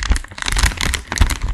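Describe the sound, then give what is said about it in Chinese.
Dense, irregular crinkling of a bag of Shanghaojia (Oishi) Japanese-style fish snacks, seaweed flavour, while eating: a steady stream of crisp crackles with a few heavier rustles and thumps mixed in, lasting under two seconds with no talking. “我现在吃的这个是”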